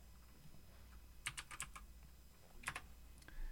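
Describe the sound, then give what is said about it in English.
Two short flurries of computer keyboard typing, a handful of crisp clicking keystrokes each, separated by a brief pause, fairly quiet over a low steady background hum. “I was was typing it in.”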